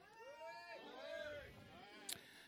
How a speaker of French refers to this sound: Le chat, hein? On en a parlé du chat, mais on va y revenir.